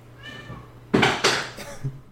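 A cat meows twice in quick succession, loud, with a brief softer harmonic trill before and a quieter chirp after, over a faint low hum; the cat is trying to get into an office whose door is closed.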